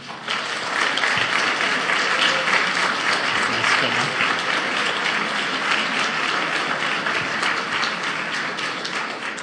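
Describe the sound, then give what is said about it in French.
Sustained audience applause welcoming a guest speaker at a cégep, a dense, steady clatter of many hands clapping at once, loud throughout and easing only slightly toward the end. “Bonjour, attendez que je commence ou que je fasse quelque chose avant de m'applaudir.”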